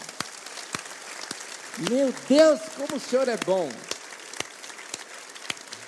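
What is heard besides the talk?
audience applauding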